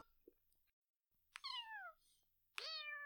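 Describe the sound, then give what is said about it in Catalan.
A kitten that spent the night outdoors in the cold up an acacia tree meows twice, weak and hoarse, each cry a thin, high call that slides downward in pitch, separated by a short pause. No voices around them. “A mesura que s'acosten a la càssia, els arriba el miol, repetit, incansable, però feble i enrogallat. El nen arrenca a córrer. Tenia raó, el gatet ha passat la nit al ras, exposat al fred, espantat i sol.”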